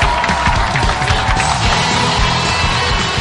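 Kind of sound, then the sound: crowd, audience applause welcoming panelists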